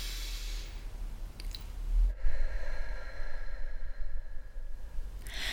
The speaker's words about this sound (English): What I want you to do is just sit down if you're not already, take a few deep breaths and just Breathe in and breathe out.